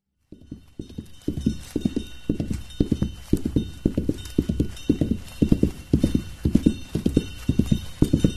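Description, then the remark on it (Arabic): Hooves of a calf running home alone from the river pound out a quick, steady rhythm, the beats continuing evenly from start to finish with no voices. “ركض العجل إلى المنزل وحده”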